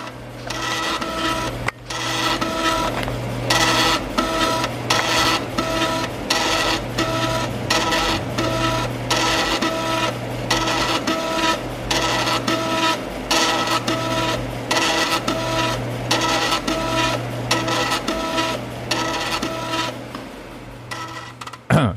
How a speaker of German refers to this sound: Und was du gerade gehört hast, das war eine dreieinhalb Zoll Diskette.